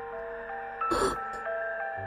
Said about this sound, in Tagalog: At ko naririnig yung music box. O, wala naman yung dito sa ospital ah.